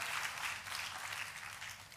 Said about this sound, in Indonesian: Boleh saya berikan tepuk tangan yang paling meriah buat Yesus Tuhan kita.